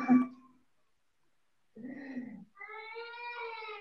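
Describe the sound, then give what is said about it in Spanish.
Cats meow insistently for attention, fussing because their owner is in her room: a short cry, a pause, then a rougher yowl and a long rising, wavering meow. Loud, harmonic calls with no talking over them. “Están haciendo berrinche porque como ahorita estoy aquí en mi cuarto.”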